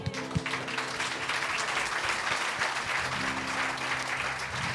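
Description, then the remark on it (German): A crowd claps steadily for several seconds after a blessing at a worship gathering, a dense, continuous wash of applause with many hands at once, fairly loud, with no voices standing out. “Komm, ich einen Applaus.”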